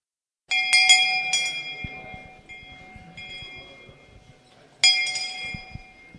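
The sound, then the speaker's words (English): A hand bell rings out in two bursts of quick, bright clangs, its tone lingering and fading between shakes; fairly loud, with faint handling rumble underneath. “Not as nice as …'s bells that we were playing on the sound system a little earlier, but those you can take home.”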